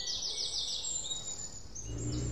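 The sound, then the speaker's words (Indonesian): Birds chirp on a house terrace in quick, high-pitched repeated trills, steady, while a soft low rumble rises near the end. No one speaks. “tentang manusia, tentang semesta dan seisinya, tentang awan, bunga, matahari, hujan, atau kicau burung di beranda teras rumah.”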